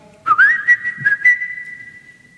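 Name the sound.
person whistling a tune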